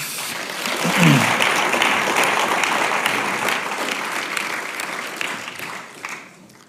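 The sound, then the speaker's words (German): A crowd breaks into sustained applause for a group of men, a dense wash of many hands clapping that stays strong for several seconds before tapering off at the end. A brief low voice sound appears near the start. “Applaus diesen Herren.”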